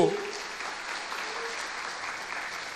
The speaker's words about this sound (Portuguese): Aplauda Ele se você está comigo.